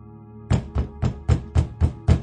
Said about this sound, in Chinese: 那个敲门声越来越大，一次比一次剧烈。